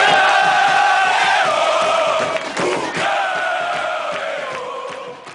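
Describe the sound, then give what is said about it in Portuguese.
A large crowd cheers and shouts loudly and steadily for several seconds, a dense roar of many voices with sustained vocal tones, briefly dipping midway before swelling again and slowly fading. “Vai galera, coração ouvir a multidão. Quero ouvir!”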